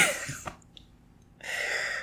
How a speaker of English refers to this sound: the, the day of a run, I always cough like for six hours after the run. It's so stupid.